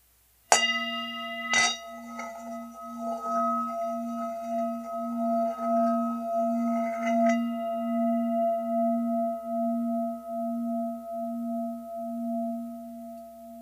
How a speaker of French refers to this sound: Et j'ai un, bol tibétain que je qui est quand même assez gros, là, puis que je vais vraiment le faire vibrer et je me rentre la tête dedans.